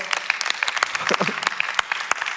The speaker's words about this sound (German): Applaus der Technik, was auch immer ihr gemacht habt.